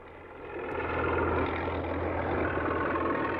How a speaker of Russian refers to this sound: увидел, что на горе за речкой толпятся люди и грохочут машины.